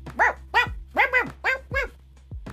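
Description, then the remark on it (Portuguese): A boy playing in a house imitates a dog barking while chasing a cat, with about six quick, voiced 'woof' sounds in a steady rhythm, fairly loud, ending with a short, softer yelp. “e ele fingia ser um cachorro e seguia o gato.”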